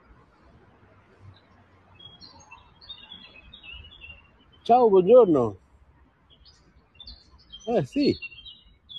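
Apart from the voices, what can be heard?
small bird singing outdoors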